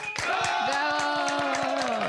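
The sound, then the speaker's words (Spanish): An audience of about 600 people at a La Mejor FM radio event applauds with quick, steady rhythmic claps, welcoming a guest singer, while a sustained, loud cheering cry rings out over them for about two seconds. “un aplauso por favor todo el público que está aquí con nosotros.”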